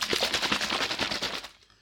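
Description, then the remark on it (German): A protein shaker holding a powdered supplement mixed with water (5 grams of powder to 350 millilitres) is shaken hard, making a fast, loud, rhythmic rattling and sloshing that lasts about a second and a half before stopping abruptly. No one speaks. “Und ich schüttel das mit dem Shaker”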